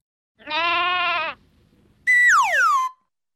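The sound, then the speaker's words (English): A little sheep bleats twice as it falls down, loud, with a quavering first call followed by a shorter cry that slides downward, and a brief quiet gap between them. “One day, a little sheep falls down.”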